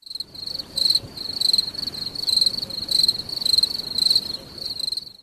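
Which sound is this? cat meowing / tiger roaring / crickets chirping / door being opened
crickets chirping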